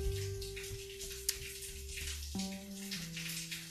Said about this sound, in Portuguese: ainda tá tendo chuva um pouquinho ali, restinho